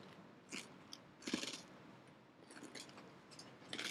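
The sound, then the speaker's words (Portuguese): Someone chewing food, with soft crunchy bites repeating irregularly, a few louder crunches standing out against quiet background noise. No one speaks. “Antes, você está mastigando, deixa eu comentar um negócio.”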